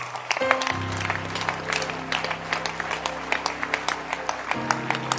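A crowd stands and claps together for shepherds, a dense, steady patter of many hands, with a low sustained organ-like hum underneath.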